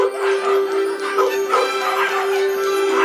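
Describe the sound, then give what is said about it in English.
A dense chorus of puppies barking and yipping over one another in a fireworks, candy and puppy dog store, loud and continuous throughout, with a steady tonal hum running underneath and no talking. “And to illustrate that point, here's where you'll be working the fireworks candy and puppy dog store.”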